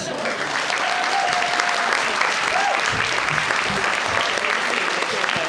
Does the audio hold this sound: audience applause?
yes